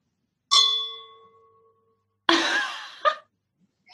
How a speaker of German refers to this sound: Und eigentlich so ein Glasanstoßgeräusch also das Geräusch war gerade nicht Kirche, sondern eher so Ende der Yogastunde